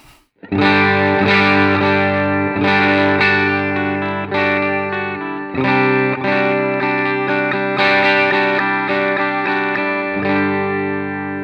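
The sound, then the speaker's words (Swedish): A clean electric guitar with a non-mahogany body and an ebony fretboard, on the bridge pickup, plays a series of ringing chords, struck roughly every second or two and left to sustain, bright with no voices. “Ska vi börja med stall rent? Stall rent här.”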